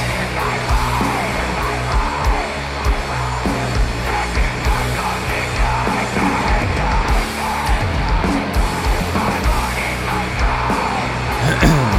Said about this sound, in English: it's hard to, to understand if he's screaming his ass off or if he's just whispering with some distortion on it.